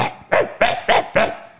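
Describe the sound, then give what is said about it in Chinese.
A voice imitates a yellow dog running out from an earthen wall and barking at Wu Song: five sharp, evenly spaced woofs over about a second and a half, each loud and abrupt with a short rough tail. “结果有一只黄狗从一个土墙里面跑出来，对着武松乱叫，”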